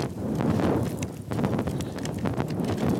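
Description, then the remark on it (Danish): Steady, rumbling wind buffets the microphone for the whole stretch, a loud roar heavy in the low end with brief gusty thumps and no one speaking. “Undskyld, hvis der er meget vind lige nu.”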